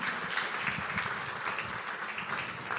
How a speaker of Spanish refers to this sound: Dele un fuerte aplauso a nuestro Señor Jesús.